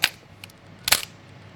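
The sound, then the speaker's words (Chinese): A DSLR camera's shutter firing at high speeds (1/1000 to 1/4000 second), the noise mainly from its heavy mirror flipping up and down: a sharp mechanical clack, a faint tick, then a louder, slightly rattling double clack a moment later. No one speaks. “呃，另一方面呢，是因为这个噪音主要来源于单反的这个反光镜上下弹动的声音，这个镜子比较厚重。”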